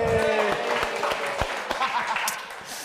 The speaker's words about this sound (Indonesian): Tepuk tangan untuk Oki Rengga dong teman-teman.